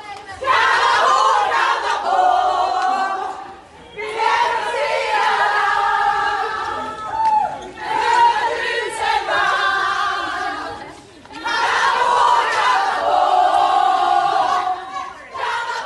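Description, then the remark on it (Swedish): Sweden's women's national football team and fans, celebrating a World Cup bronze, chant loudly in unison a chant from Rydelapp, repeating the same rhythmic phrase several times with brief pauses between rounds. “Ja, nu, nu har, nu har eh, vår ramsa från Rydelapp eh, tagit sig hela vägen in i även damlandslaget då, Gusten.”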